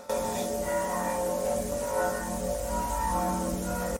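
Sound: church bells ringing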